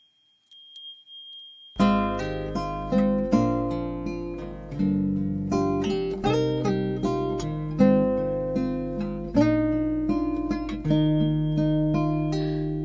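After a short faint tone, a Japanese pop song's instrumental intro starts: bright, chiming keyboard notes struck in a steady rhythm over sustained bass, loud and close, with no singing yet.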